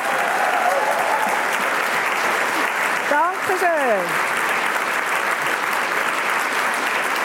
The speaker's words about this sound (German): Gross Applaus natürlich auch für meine beiden Gäste. Sie kommen aus dem Kanton Bern und sind weit darüber hinaus bekannt.